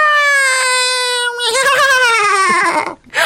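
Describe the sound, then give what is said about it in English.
Someone imitates the cry of a Mogwai creature from the film Gremlins in a high, squeaky voice: one long, slowly falling tone that breaks into a quavering, whimpering warble. The sound stands alone, with no talking. “That was all I heard during Gremlins. It was just like continuous sound effects. Mogwai.”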